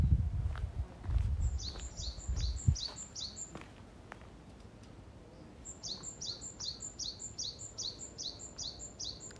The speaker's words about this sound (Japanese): 散歩中です今日は天気がいいので鳥がいっぱい鳴いてます鳥のさえずり録音です